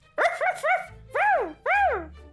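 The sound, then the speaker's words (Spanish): A small dog barks in high-pitched yaps, three quick ones in a burst followed by two longer, drawn-out barks, fairly loud with no one talking. “Yo era una perrita viviendo en las calles de Moscú, la capital de Rusia.”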